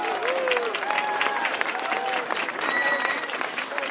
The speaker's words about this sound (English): he deserves a great round of applause.